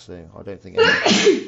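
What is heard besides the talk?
sneeze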